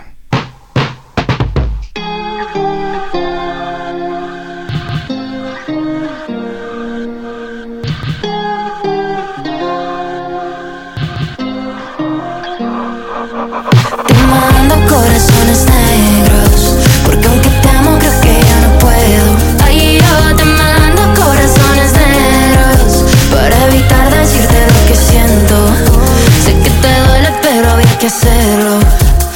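A song plays loudly: a sparse, melodic intro with picked notes gives way midway to a full, dense arrangement with driving beat and bass that fills the rest.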